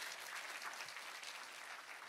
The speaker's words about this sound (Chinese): 愿意的拍手，把荣耀归给主，好吧？愿意的，哎，大声一点。